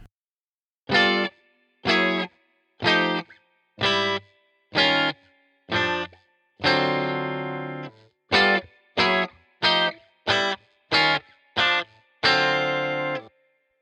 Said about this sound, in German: Auch hier benutzt er wieder Akkorde aus Jazz und Funk. Die ersten drei Akkorde sind eine chromatische Sequenz von G9 zu Gs9 zu F9.